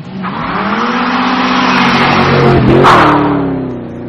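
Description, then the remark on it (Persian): A Porsche 911 sports car engine revs loudly and steadily for about four seconds, its pitch climbing and dipping with a brief squeal-like surge near the end; no one speaks. “مثلا من خیلی دوست دارم یه پورشه 911 بخرم بندازم سیر پام”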